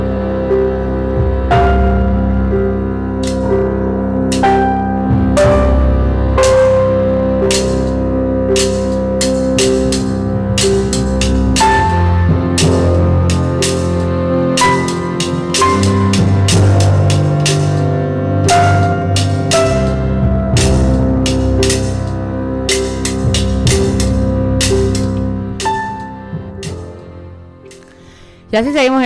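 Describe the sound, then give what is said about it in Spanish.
Instrumental music from the soundtrack of a documentary film plays loud and steady, with sustained melodic tones layered over a regular pulse of sharp percussive hits, continuing for the whole stretch without any voices. “Y lo que están escuchando es eh, parte de la banda sonora de la película de la que vamos a estar hablando hoy,”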